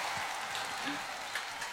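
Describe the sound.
Steady applause from an audience at a live music performance, a dense, even wash of clapping that holds at a constant level for the whole short stretch, with faint voices mixed in underneath.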